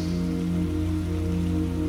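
Steady rain pattering on a surface, a continuous even hiss with no pauses, layered over a low, sustained droning hum. No one speaks.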